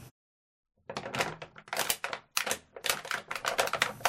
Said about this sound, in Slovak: Krčenie 5 flaše? Presne no, tak, no. výborne. A tento zvuk, ak doma počujete, tak dúfam, že to hádžete do správneho koša, ale najlepšie by bolo, keby ste ho nemali a mali sklenenú fľašu.